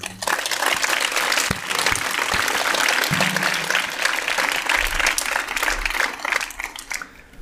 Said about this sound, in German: Und das, glaube ich, verdient einen ganz, ganz besonders großen Applaus für die Frau Dr. Rabe und ihr Team und alle, die daran beteiligt waren.